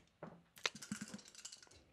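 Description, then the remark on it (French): Small dice clatter across a hard tabletop in a quick burst of sharp clicks and rattles, tumbling for about a second before settling, with another brief knock at the end. “C'est des petits dés, là, mais. Deux. Deux.”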